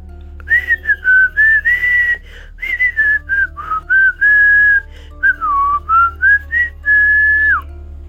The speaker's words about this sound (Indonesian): dia terus bersiul, bersiul, siul terus, padahal jam menunjukkan jam 8.30 malam-malam itu tidak boleh bersiul kata kakek kok aku bersiul ah biarin aja lah gak ada apa-apa juga